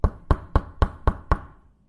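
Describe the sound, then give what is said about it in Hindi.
Six firm knocks on a wooden house door early in the morning, evenly spaced about a quarter second apart, fairly loud, each with a short resonant thud, then quiet. “वो लड़का अगले दिन सुबह सुबह ही नंदू के घर का दरवाजा खटखटा देता है”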